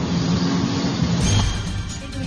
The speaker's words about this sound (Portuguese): É não, é algum carro por aí, algum carro barulhento.